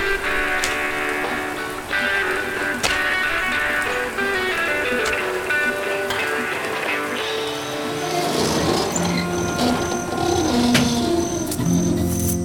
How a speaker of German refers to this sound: begleitet von den Regentropfen, die auf das Glasdach prasselten.